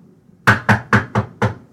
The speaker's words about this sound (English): Knock on the door. It had a little hollow sound like that because the apartment wasn't, you know, it wasn't, it wasn't all that.